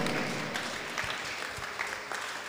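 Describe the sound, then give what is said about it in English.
A crowd claps together in a steady, sustained patter of many hands, fairly even in loudness, with a few sharper individual claps standing out. “Oh, I thought you were going to put your hands together.”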